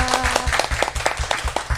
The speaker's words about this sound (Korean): 너무 감사합니다. 다시 한번 우리 박수 쳐드릴까요? 와.